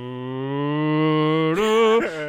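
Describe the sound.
A voice imitates a record player with a 33 record slowly getting up to speed: a long, loud, low droning hum creeps gradually upward in pitch, then lurches higher in two quick steps near the end.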